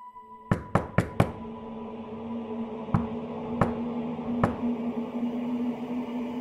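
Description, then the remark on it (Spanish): At night, knuckles rap on a wooden window shutter: four quick, sharp knocks, then three slower, softer ones spaced apart, over a steady low hum. “Una noche en la que mi abuelita se quedó hasta tarde para terminar con su trabajo, estaba concentrada en eso cuando escuchó que alguien golpeó con sus nudillos una de las puertas de la ventana.”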